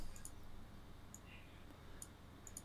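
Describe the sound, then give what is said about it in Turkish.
A Dymo embossing label maker clicks several times in short, irregular bursts, some in quick pairs, as it embosses text into plastic labels; the sharp plastic clicks are fairly quiet against a low steady background hum, with no one talking. “Ee, plastik etiketler kabartarak plastiği kabartarak yazıları oluşturuyor.”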